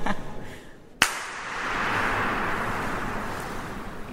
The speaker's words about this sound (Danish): der ligger vand på gulvet, der er en luftfugtighed på tæt på 100%, og så skriver de jo flere steder på deres hjemmeside det her med, at der er en rumklang på 17 sekunder. Kan jeg lukke dig til bare lige prøve at klappe en gang rigtig højt?